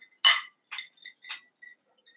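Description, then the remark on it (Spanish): Glass cups clink together in a toast: one sharp, bright clink followed by three or four lighter, ringing taps, clear, with no one talking. “Vasos de vidrio no mm. contaminen, chavos.”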